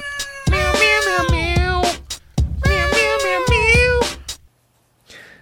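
Loud, drawn-out cat meows with sliding pitch, set over a thumping bass-heavy electronic beat, in two long phrases before the music cuts to near silence.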